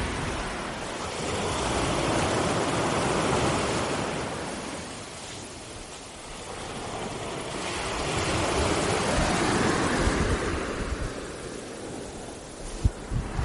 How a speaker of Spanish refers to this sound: Y como alguna otra vez de hecho, como estoy cerquita, cerquita de la orilla, te voy a poner el sonido tan maravilloso de las olas. A ver si te llega.